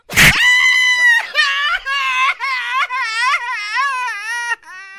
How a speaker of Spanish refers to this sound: ¡Viva México! Ah, no, no, ah, pues estoy gritando, llorando. Arriba México.